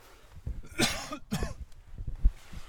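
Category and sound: human body sound, cough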